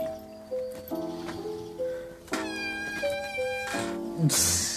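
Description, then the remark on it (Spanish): A cat making a series of muffled, closed-mouth meows, steady humming tones that shift in pitch from note to note, continuous across the whole stretch with no talking. “Bueno, mi gente, he visto un gato mollando.”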